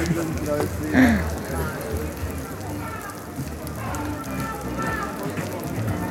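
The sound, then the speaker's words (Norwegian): Steady rain patters across a hard surface at an outdoor festival, a dense continuous hiss that holds at an even level throughout, with indistinct voices of festival-goers murmuring in the background. “Og til tross for regnet fylles stolene opp av gründere, investorer, idémakere og andre festivaldeltakere.”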